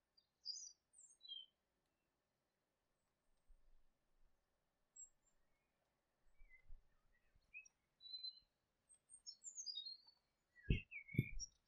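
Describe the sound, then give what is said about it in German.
Scattered high, bright bird chirps and short warbling calls sound from several directions in a quiet fir forest along a hiking trail, with soft low rustles and a couple of brief thumps near the end. “Du hörst die Vögel zwitschern.”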